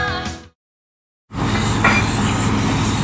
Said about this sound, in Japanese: インドネシアサルーラ地熱発電の蒸気の音その蒸気は水に帰り地中深く戻っていく